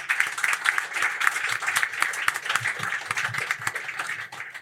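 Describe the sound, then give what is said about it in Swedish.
A room full of people applauds a guest being called up on stage, a dense, steady wash of clapping that carries on for several seconds, with no voices standing out above it. “ger honom en applåd och eh, take it away.”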